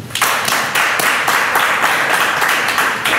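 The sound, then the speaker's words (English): Loud, continuous hand clapping, dense and rapid enough that the individual claps blur into a steady wash of applause, with no voices heard over it. “You can clap your hands.”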